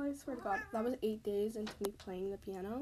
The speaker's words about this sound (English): I'm sorry for my cat meowing in the background.